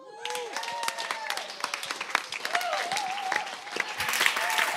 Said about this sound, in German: Bringt einen fetten Applaus.